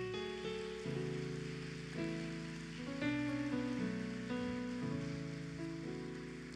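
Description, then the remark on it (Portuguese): A church audience claps for the Lord in a steady, dense, crackling wash that runs the whole clip, with sustained keyboard chords shifting underneath. No one speaks. “Dá uma salva de palmas para o Senhor.”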